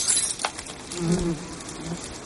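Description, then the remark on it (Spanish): A low, wavering buzz of a queen bee that has come out of a jar drones for a couple of seconds, rising and dipping slightly in pitch over a hiss of background noise, with no voices. “Booker encuentra el frasco del que ha salido la abeja reina.”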